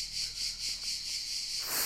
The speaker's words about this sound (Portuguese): e estas cigarras